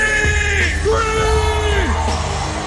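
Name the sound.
crowd screaming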